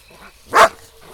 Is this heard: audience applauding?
no